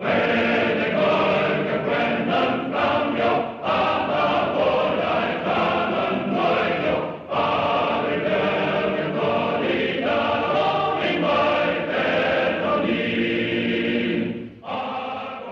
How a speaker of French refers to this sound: C'est avec euh, cet hymne martial et entraînant signé Alfred Newman que s'ouvre le film de John Ford dont on va parler maintenant.